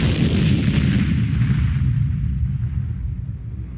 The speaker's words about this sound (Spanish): cuando en ese momento suena un bombazo.